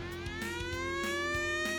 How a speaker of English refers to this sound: That that alarm, you know what that alarm means? You know what that alarm means?